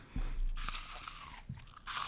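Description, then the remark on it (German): Crunchy bites into a crisp apple for ASMR, with sharp snapping crunches followed by wet chewing, loud with no talking. “Das war ein Apfel, oder?”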